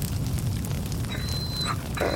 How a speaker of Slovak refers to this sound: Potom vloží drevo dovnútra. Oheň nenásytne oblizuje kôru. Tomu však nestačí vyšľahne z pece.